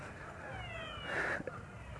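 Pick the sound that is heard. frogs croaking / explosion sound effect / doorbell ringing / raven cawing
frogs croaking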